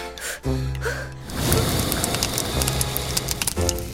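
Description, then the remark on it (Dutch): A dragon breathes fire toward the hearth after eating spicy sweets: a low, throaty growl gives way to a loud, sustained roaring whoosh of flame that crackles for about two seconds before a voiced rumble returns. “Ik moet er zelfs van vuur spuwen.”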